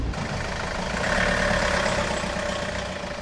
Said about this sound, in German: Motoren und Auspufflärm nähert sich der Zufahrt. Ein weiß lackierter Transporter steuert auf uns zu.